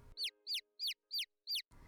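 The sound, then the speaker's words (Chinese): A cuckoo call: five short, high, downward-sweeping chirps repeated at an even, quick rhythm, fairly loud and alone with no talking. “布谷鸟一样“咕”的回答，并用鸟喙在他手指上摩擦，显然充满感情。”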